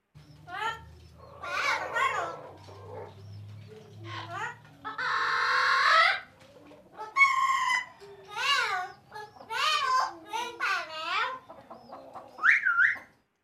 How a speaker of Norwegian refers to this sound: Samtidig som de bråker det de hæler, blæs kalkunhannene seg opp og går rundt som om de er kongen av verden.